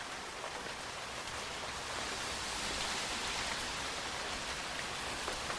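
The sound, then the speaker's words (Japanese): Steady rain falls without pause, a dense, even hiss of countless drops spread across the whole sound, fairly loud, with no voices present. “それにしても雨やみそうにないなそうですね”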